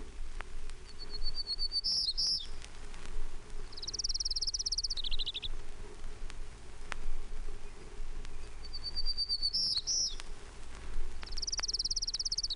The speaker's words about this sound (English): Townsend's Warbler.